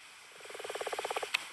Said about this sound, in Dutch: Dit is een bruine. Ja. Dat, prachtig, hè? Dat geluid, een beetje dat krakende geluid. Een beetje krakend, ja, brommend geluid noemen we het ook wel. Dat is van de bruine kikker.